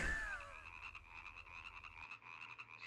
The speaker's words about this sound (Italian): Rane, brutte schifose, viscide. Siete sempre lì quando piove una boda grossa così.